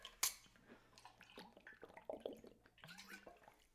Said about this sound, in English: Oh my God, I need to take a drink of water.